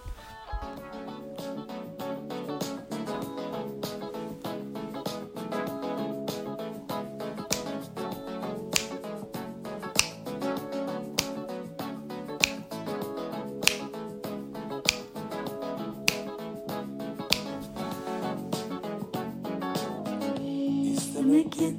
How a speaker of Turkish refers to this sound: Bugün bir şarkıyla aşka düştüm. Onu çok çok sevdim. Şimdi sana da dinletmek istiyorum.